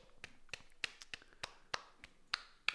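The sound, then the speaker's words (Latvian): A handful of sharp, scattered hand claps in a studio, likely just one or two people clapping. The claps come irregularly, about a dozen in a few seconds, fairly quiet, with no talking. “vēlreiz aplausi”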